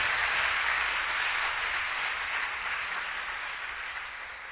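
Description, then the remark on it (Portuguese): A church audience applauds the Lord together, a dense, steady wash of many hands clapping that holds for several seconds and then slowly fades, with no voices over it. “Aplauda o Senhor por ela.”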